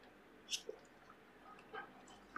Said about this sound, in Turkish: ondan önce bir kahvemle hafif bir yudum alayım.